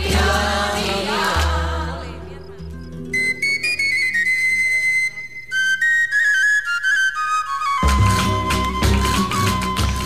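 Rociero-style song medley playing loudly: a full band with a thumping low beat opens, gives way to a high, flute-like melody line, then the full band returns near the end.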